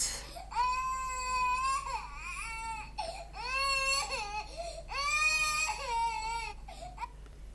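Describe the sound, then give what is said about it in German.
A baby cries loudly in three long, wailing bursts with short breathy pauses between them, the pitch rising and falling in each wail. “Babygeschrei.”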